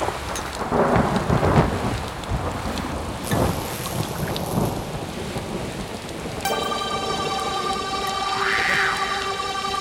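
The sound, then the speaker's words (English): Heavy pouring rain hisses steadily while deep thunder rolls and cracks through a storm; after several seconds a sustained, buzzing harmonic tone enters over the downpour. “It's pouring rain, thunder and lightning, clash of the titans.”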